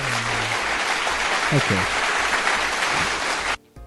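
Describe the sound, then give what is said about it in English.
A recorded burst of crowd applause, a dense, steady wash of many hands clapping that runs for several seconds and then cuts off abruptly. A voice speaks briefly over it. “I clap sound effects.”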